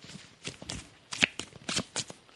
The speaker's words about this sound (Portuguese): A produção está embaralhando as cartas. Som de cartas sendo embaralhadas.